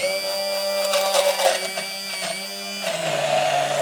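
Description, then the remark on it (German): A loud immersion blender whirs steadily as it purées food, its high motor whine wavering slightly before dropping to a lower, straining pitch near the end; no one speaks. “So, so kannst du es sehen, dass ich ja. wirklich püriere.”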